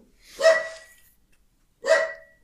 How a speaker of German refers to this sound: Immer, ich mag's, dass er immer dreimal hintereinander bellt. Ja, der hat einen Rhythmus. Jetzt habe ich das gesagt, jetzt waren es nur zweimal.